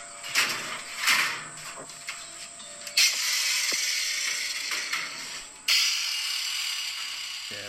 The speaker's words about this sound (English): just me uh, grinding it away. It's a bit loud now.